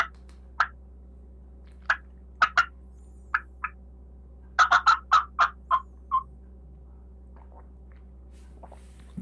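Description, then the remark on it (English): An old hen wild turkey cackle: sharp clucks start out scattered, then tumble into a quick run of about eight notes before trailing off, with no talking. “So I'm gonna ask you which which cackle do you want?”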